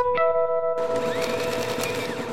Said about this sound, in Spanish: Físicamente, así suenan las hojas del libro durante la impresión.